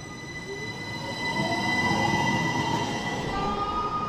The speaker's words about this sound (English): And so it's, it's kind of neat not only because it brings people down here, but when you're sitting on that patio, the streetcar is an arm's length away, and it's a fun experience when it goes zipping by.